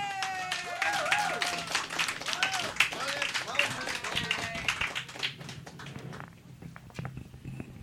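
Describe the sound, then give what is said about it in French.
An audience applauds with dense, rapid clapping, mixed with scattered whoops and cheering voices, holding steady for several seconds before thinning out toward the end, welcoming a new budding monologuist at the start of an evening of the Festival Spasme. “Et pour débuter cette soirée, s'il vous plaît, une chaleureuse main d'applaudissement à un nouveau de notre volet monologuiste en herbe”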